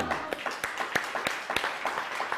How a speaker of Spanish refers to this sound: Un fuerte aplauso, pero antes del aplauso, a la cuenta de tres, uno, dos, tres. Shabbat Shalom.